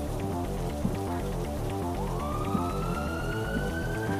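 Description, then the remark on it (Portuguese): A siren starts wailing partway through, its tone sweeping upward and sustaining, sounding somewhat distant over a dense, steady background of rain-like patter and low rhythmic sound. “No caminho para o Cinesex, os vampiros ouvem sirenes ecoando ao longe pelas ruas vazias de Santo Antônio.”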